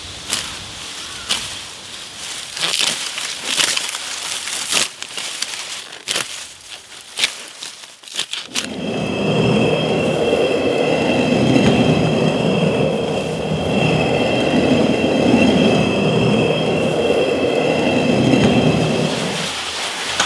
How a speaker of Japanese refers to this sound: 今朝はあったかいそばができるまでのいい音それではお聴きください